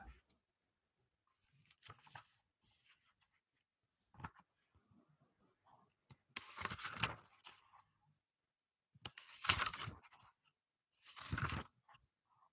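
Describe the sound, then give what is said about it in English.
Paper pages of a small journal rustle and flip in several crisp bursts, with short quiet gaps between them and a couple of longer, fuller riffles toward the end. “It just sounds like a big book. No, it's actually in my little tiny journal.”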